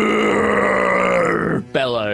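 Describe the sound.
A person voices the roaring bellow of a Froghemoth as acid splashes against its back: one long, loud, rough, sustained growl, a brief break, then a second rising roar that starts higher in pitch.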